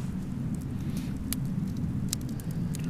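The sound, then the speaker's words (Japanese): A steady, low rumbling drone of an airplane overhead fills the background at constant loudness, with a few faint, brief clicks scattered on top and no voices. “まあそんな言ってるとね、今ちょうど飛行機の音が このね、うん、なってますけど、うん、これを騒音と感じるかどうかそうですねもありますよね”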